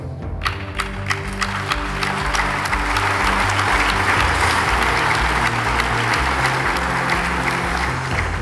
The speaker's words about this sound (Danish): og som I kunne høre, så var der øh, måske en lidt mere afdæmpet applaus på salen, kan man sige